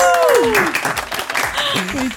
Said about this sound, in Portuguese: Por favor, editor, mais uma salva de palmas.